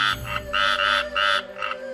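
Frogs and toads croak in loud, buzzy bursts, about four pulsing calls in quick succession over a steady background hum, with no one talking.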